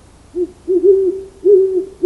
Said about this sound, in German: Irgendwo heulte eine Eule